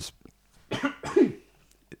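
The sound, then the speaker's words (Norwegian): Two harsh, throaty coughs in quick succession, fairly loud, with a few faint breaths and small noises around them and no talking. “Og jeg hoster fremdeles.”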